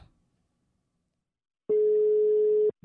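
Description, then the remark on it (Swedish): A telephone ringback tone sounds once while calling a woman, a steady, fairly loud electronic beep lasting about a second after near silence, with a brief sound cutting in right at the end. “Så vi ringer upp henne så får hon berätta mer om sin resa.”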